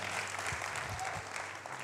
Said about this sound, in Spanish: Si usted lo cree, denle un aplauso al Señor.